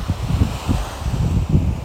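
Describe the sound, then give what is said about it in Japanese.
Ocean waves wash onto the shore at Hayama in a steady, continuous roar, heavily mixed with low, gusty wind buffeting the microphone, just after days of continuous rain have stopped. No one speaks. “葉山はずっと雨が降り続いてましてようやく今日先ほど雨が止んでえん急いで駆けつけたんですけどえっ、ー、と久しぶりに波音を聞いてとても良かったですね”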